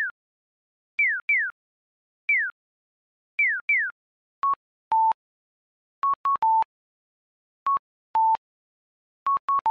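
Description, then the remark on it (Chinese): A Japanese audible pedestrian crossing signal (onkyōshiki shingōki, a sound-emitting traffic light) on a street in Japan: repeated bright, downward-sliding electronic chirps, then a two-note cuckoo-like pattern of short steady beeps, a higher tone followed by a slightly lower one, with no talking. “没错，就是日本的红绿灯的声音。像这种有声音的红绿灯叫做音响式信号机 onkyoshiki shingogi。”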